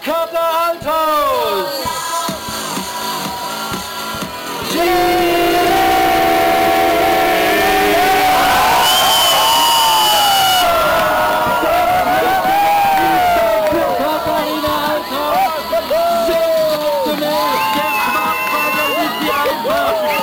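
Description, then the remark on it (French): A crowd of 1,400 people, 1,350 of them German, roars and cheers loudly and continuously at the ski jump landing of Altaos, with horn-like blasts and rising shouts swelling through the noise, a dense open-air din that peaks midway. “Et d'ailleurs, on va vous faire partager un petit son de l'atterrissage de Altaos devant 1400 personnes, dont 1350 Allemands.”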